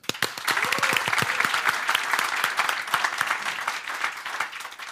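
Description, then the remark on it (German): A crowd breaks into steady applause for the Bills that lasts the whole five seconds, dense and fairly loud, with a few sharper individual claps standing out near the start and no voices on top. “Dann lassen wir die Bills jetzt klatschen.”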